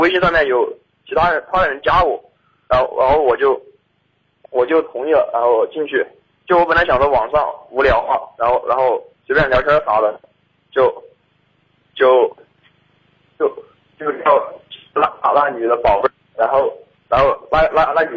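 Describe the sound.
A caller's voice comes through a phone line with a very poor signal, thin and band-limited, with choppy, stuttering phrases and abrupt gaps as the connection breaks up the speech.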